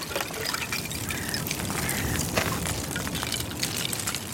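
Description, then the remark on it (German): Thin ice rings and tinkles with faint, high, glassy chimes as small waves from a winter swimmer's strokes lap against it, over a steady wash of gently splashing water. No one speaks. “Die kleinen Wellen, die meine Schwimmzüge machen, bringen das Eis zum Klingen.”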